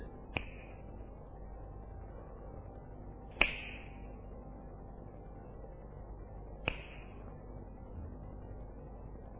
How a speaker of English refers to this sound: And then, in my mind's eye, I hear the clicking of fingers.